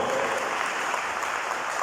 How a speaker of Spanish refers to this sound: Denle el aplauso a Jesús y se lo va a dar, por favor.